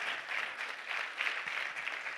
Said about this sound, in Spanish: Imagínense, esos son los milagros del Señor. ¿Cuántos dan un aplauso?